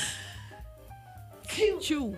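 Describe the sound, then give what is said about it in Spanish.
A sudden sneeze bursts out near the end, a sharp breathy explosion in two quick pushes after a stretch of quiet low hum. “Me dio un estornudo inmediato.”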